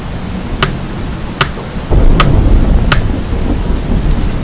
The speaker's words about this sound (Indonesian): Padahal hujan belum reda, bahkan masih deras saat itu.